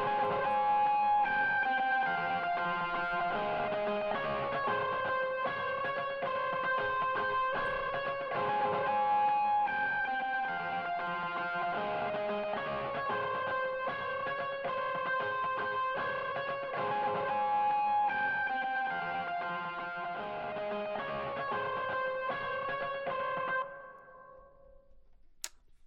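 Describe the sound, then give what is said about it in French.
A second distorted electric guitar, with a bit more distortion, takes over from another guitar in a song's verse, playing a steady, dense riff at constant volume for about twenty-four seconds, then cuts off abruptly, leaving near silence. No voices are heard. “Avec un peu plus de distorsion.”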